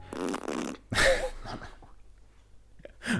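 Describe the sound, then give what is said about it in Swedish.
A buzzy mouth-made fart noise, a wet lip raspberry lasting about half a second, followed by a few shorter sputtering, breathy bursts with brief pauses between them. “Har du tvingat mig att läsa en seriös text och så sitter du och gör pruttljud?”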